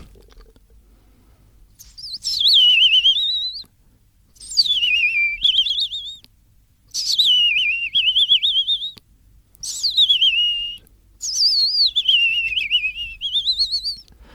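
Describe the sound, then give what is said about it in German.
A person whistles an imitation of a European robin's song: five high, trilling, sweeping phrases separated by short pauses, clear against a quiet background. “Rotkirchen vielleicht? Ja, Rotkirchen.”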